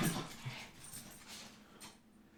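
A dog whimpers softly and briefly, with faint high-pitched whines and some shuffling noise, as the dogs are back inside.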